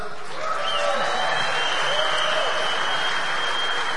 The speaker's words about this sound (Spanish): Y ayúdenme a recibir a mi bella esposa. Pues tenemos 28 años de casados, ahí entran los aplausos.